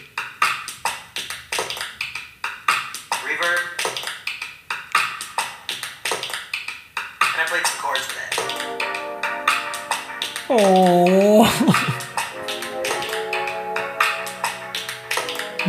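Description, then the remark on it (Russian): A generated loop of melting ice: drips and ticks in a dense, irregular patter of crisp taps. Partway through, a sustained ringing tone swells underneath and briefly bends in pitch. “Все, это луп тающего льда.”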